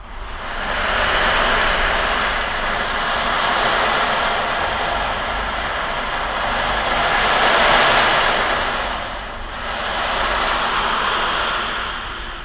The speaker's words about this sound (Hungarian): ezeket is a hangfürdő alatt használom. Nagyon érdekes, és szokták szeretni az óceándobot ami alatt ugye, hát kinek mi van a tudatalattiában, jönnek fel az élmények, emlékek.